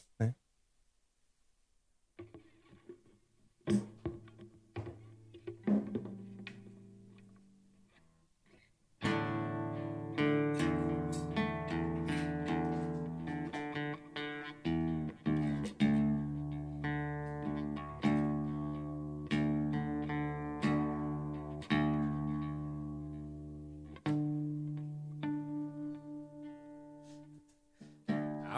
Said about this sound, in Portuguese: Afinando ao vivo, bicho.